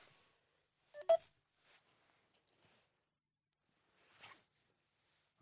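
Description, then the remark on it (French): A mobile phone briefly sounds a short burst of electronic ringtone beeps, followed by quiet rustling and a soft handling noise; no one speaks. “J'aurais dû le mettre en vibreur avant.”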